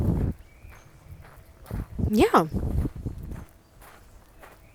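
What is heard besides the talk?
footsteps walking outdoors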